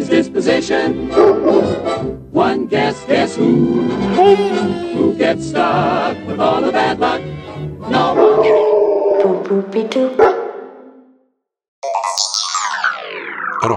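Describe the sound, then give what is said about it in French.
A dog growls and barks loudly and almost without pause for about ten seconds, then goes quiet briefly before some rapid descending whooshing sounds. “le plus cabot de tous les cabots, j'ai nommé Pompidou”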